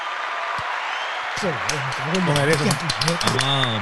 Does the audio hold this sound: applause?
yes